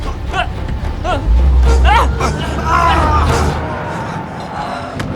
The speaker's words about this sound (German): Vorsicht, bitte, der Pickup! Der rast direkt auf uns!